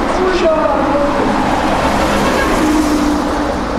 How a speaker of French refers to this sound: Quand je remonte l'avenue Bagramian, dans son flot de circulation incessante